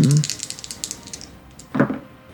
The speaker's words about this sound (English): So we will roll percentile dice um, to see how that goes.